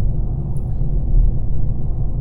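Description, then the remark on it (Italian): A deep, steady road rumble as a vehicle overtakes a truck, loud, swelling slightly midway through before settling again, with no voices. “aspetta che supero questa, Vai, questa, questa, questa perché nel frattempo eh, appunto eh no, certo, Ecco, è superato il camion.”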